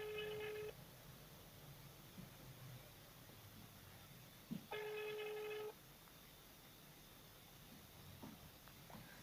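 A phone line rings out unanswered: two steady electronic ringback tones, each about a second long, several seconds apart, with faint hiss and line noise in between.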